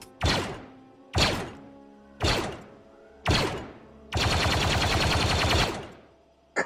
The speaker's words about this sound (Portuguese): Quando puder tirar de novo, só avisar tu começa a tirar e vocês que estão aí dentro começam a escutar os tiros, né?